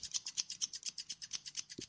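Rapid, steady snipping of scissors cutting through the fur of Charlie, a poodle, after thorough blow-drying, giving him a teddy-bear cut; about a dozen crisp cuts in quick rhythm, with no voices.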